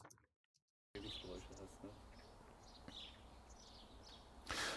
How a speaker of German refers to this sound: Ein anderes Beispiel, was wir auch mal gerade nutzen können, das ist von einem Videokurs, den wir aufgezeichnet haben, eine Außenaufnahme von mir. Da haben wir im Hintergrund so ein Grundrauschen, Vögel zwitschern und ähnliches.